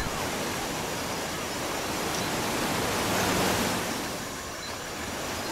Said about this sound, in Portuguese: Logo adiante do ponto de onde haviam embarcado, o rio dá uns saltos por uns penhascos enormes e a água golpeia a terra com tanta força que de muito longe se ouve o ruído.